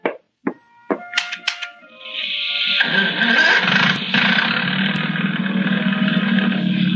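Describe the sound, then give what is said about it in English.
A few sharp clicks and sputtering cranks, then the Bold Venture's motor catches at about two seconds and settles into a steady, loud rumbling idle that runs to the end. “Oh, I had it running a minute ago. Let me try.”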